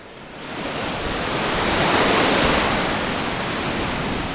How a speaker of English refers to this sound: And this place is so peaceful and so still it is easy to forget that just a few miles away, the ocean is raging.